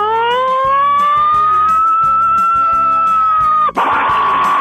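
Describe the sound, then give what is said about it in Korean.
A man's voice imitates an American siren on Park Myung-soo's Radio Show, with one long, loud, sustained wail that rises and holds steady, over a thumping background beat, ending in a sharp breathy burst. “예, 사이렌 소리.”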